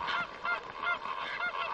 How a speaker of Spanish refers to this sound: Bandada de pájaros sobre cielo azul despejado.